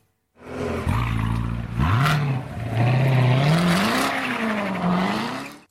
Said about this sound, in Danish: Jamen, det er en Corvette. Det er en Corvette. Det er rigtig